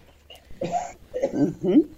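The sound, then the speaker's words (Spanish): A person who has had a cough for a long time coughs, a rough, noisy burst followed by a couple more strained, throaty coughs in quick succession. “Hay alguien que tosió ahí, hay un hombre que está tosiendo, hace mucho que tiene tos este señor, yo no sé si oh.”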